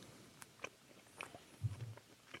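A quiet bite into a crusty slice of pizza, followed by a few low, muffled chewing sounds with faint crackles; no one speaks.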